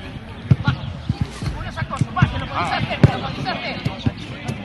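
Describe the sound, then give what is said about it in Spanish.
Dull thuds of a football being kicked repeatedly at an uneven pace during a Unionistas de Salamanca team training session, with several voices calling and talking in the background. “Porque este sonido que van a escuchar es el de la actualidad real, esa que nos gusta y es de deporte en estado puro.”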